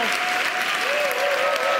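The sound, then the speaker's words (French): An audience at a church service breaks into sustained applause for the work of Jesus Christ on the cross, a dense, steady wash of many hands clapping together, with a faint sustained tone and voices murmuring underneath. “Et tous les gens justifiés et tous les gens sanctifiés disent un grand Amen et applaudissent l'œuvre de Jésus-Christ à la croix. Allez, fort que ça, ça mérite une ovation.”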